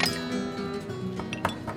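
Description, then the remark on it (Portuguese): Several glasses clink together at a bar in a toast to a Cuba free of Castro, bright ringing taps scattered across the moment with a few quick knocks near the end, over a low background murmur. “Amigos, eu quero propor um brinde, por uma Cuba livre de Castro.”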